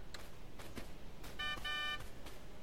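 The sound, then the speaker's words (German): A car horn honks twice in quick succession, two short blasts with a brief gap between them, over a steady background of noise. “Wer hupt denn da? Verdammt nochmal, das nervt.”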